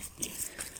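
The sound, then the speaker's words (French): A ram chewing leaves, with a quick series of crisp, rustling crunches repeating in a steady rhythm, fairly soft, and no voices. “Tu manges les feuilles”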